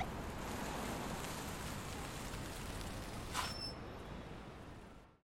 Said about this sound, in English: There's a light rumble in the sky above as rain begins to trickle down.